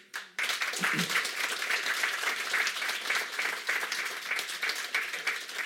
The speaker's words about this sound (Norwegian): Og en ekstra applaus til panelet.